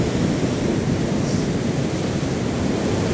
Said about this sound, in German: Da bildet sich quasi eine natürliche Brücke, Überhang aus einem der Sandsteinfelsen ja. mit dem türkisen Wasser und dem gelben, äh, hell-orangen Felsen. Ziemlich schön. Das Meer spült entsprechend in den Höhlen und Löchern der Felsen.